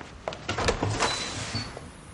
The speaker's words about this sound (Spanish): Abre la puerta de la calle.